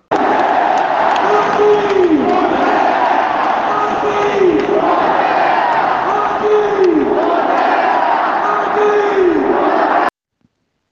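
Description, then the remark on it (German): A roaring stadium crowd cheers Joaquin Correa's goal making it 3-0 for Inter, scored into the top corner after a solo run over half the pitch, a loud, sustained wall of voices with rhythmic chanting swells repeating about every two and a half seconds, then cutting off abruptly. “Ihr konntet gerade das Highlight des Spiels hören, den 3 0 Treffer durch Joaquin Correa, der die Kraft hatte nach einem überragenden Solo über den halben Platz noch die Kugel oben ins Eck einzuschweißen”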